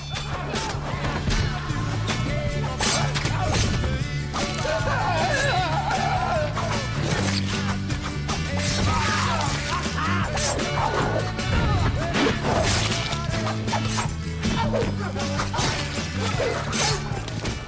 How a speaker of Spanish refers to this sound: se están escuchando espadazos mientras, mientras les da. Es buenísimo.